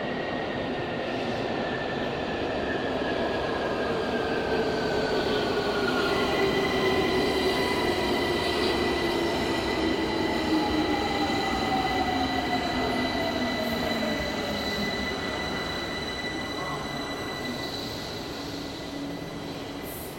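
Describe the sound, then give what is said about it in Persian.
A subway (metro) train rumbles steadily for the whole stretch, its wheels letting out long, high, drawn-out squeals that slowly bend in pitch over the constant roar. “شهرزیرزمینی : مترو”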